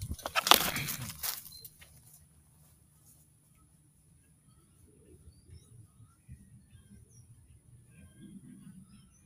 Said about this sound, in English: But those gray tail grackles, I'm telling you, man, they do it on purpose. They make noise on purpose.